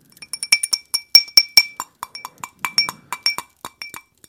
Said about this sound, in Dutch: Ik zal uh, eh, Jingle Bells nabootsen met mijn uh, leeg glas eh, advocaat.